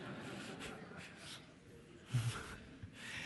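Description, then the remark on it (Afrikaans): Faint scratching of a pen moving across paper in short strokes as names are written down, with a soft breathy sniff partway through; no one speaks. “Ek skryf net die name neer”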